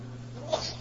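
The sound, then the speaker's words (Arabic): A single quick sneeze, short and fairly soft, bursts out once over a steady low electrical hum, with no talking around it. “يرحمك الله”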